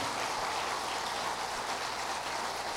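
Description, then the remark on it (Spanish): An audience applauds in a dense, steady wash of clapping that holds at an even level for about three seconds, with no voices standing out above it. “Dale un aplauso.”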